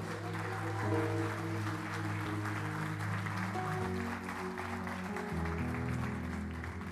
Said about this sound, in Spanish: Así que, ¿por qué no se dan un aplauso?